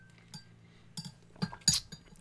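A few light clinks and taps of a glass of water being handled as someone drinks, spaced irregularly with a sharper, brighter clink near the end, over a faint low hum. No one speaks.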